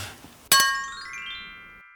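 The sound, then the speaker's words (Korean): A single bright clink of beer glasses touching in a toast, sharp at first and then ringing out in a long, fading shimmer. No one speaks, with only faint background noise before it. “건배를 한번 할까요?”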